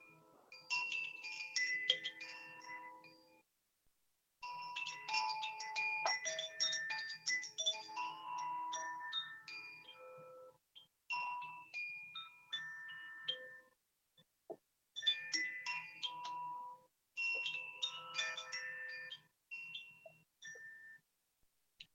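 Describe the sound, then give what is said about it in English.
Koshi Aria wind chimes ring in irregular, shimmering clusters of overlapping bright tones that linger and fade, broken by brief near-silent pauses. Clear, with no voices. “In different chimes, this aria, Koshi chimes”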